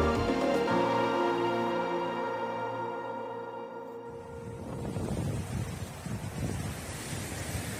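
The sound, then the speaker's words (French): A steady tonal drone gives way after a few seconds to a loud, rushing roar of wind and pounding surf, continuous, with no voices: the raging winds and wild sea of cyclone Bellal striking Réunion Island on a Monday at 6 a.m. “Lundi, 6 h du matin, sur l'île de la Réunion, le vent se déchaîne, les arbres se cassent, la mer est démontée et les pluies diluviennes.”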